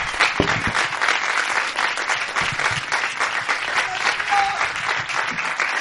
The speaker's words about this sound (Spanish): que se lleve de la maleta un fortísimo aplauso.